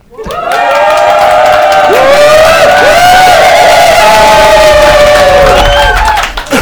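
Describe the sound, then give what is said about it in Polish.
A large live audience packed into a venue makes a big noise on request, roaring and cheering loudly and continuously for several seconds, with high-pitched shouts and whoops rising above the sustained din before it briefly dips at the end. “żeby to udowodnić, poproszę o wielki hałas teraz”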